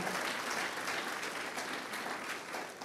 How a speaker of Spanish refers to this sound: Amén, amados. Aplaudámosle fuerte al Señor, por favor. Fuerte, fuerte, fuerte al Señor.